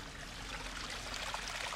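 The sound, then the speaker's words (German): Steady splashing and trickling water from a fountain in the shade at Münsterschwarzach Abbey in high summer, a continuous even babble with no pauses, fairly quiet, with no voices present. “Ein Brunnen plätschert im Schatten vor sich hin.”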